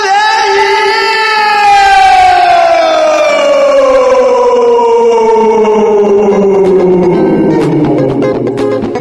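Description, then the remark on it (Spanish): A loud, sustained horn blast sounded to start a program, with a rich stack of harmonics, its pitch sliding slowly downward over about nine seconds and turning rougher toward the end. “¿Es necesario que pegue ese bocinazo para empezar?”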